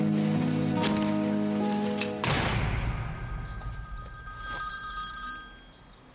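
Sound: telephone ringing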